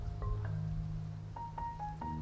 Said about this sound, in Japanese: えー、雨が降っております。